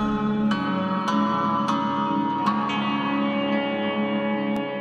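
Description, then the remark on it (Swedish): A recording of the ancient Syrian Hurrian hymn: a slow, hymn-like melody on a plucked string instrument, notes struck every half second or so over a sustained, reverberant drone, steady and fairly loud with no voices. “Men ja, okej, okay, den syriska hymnen, hurra en hymn, mm. och, och det här, ska vi lyssna på lite mer av den?”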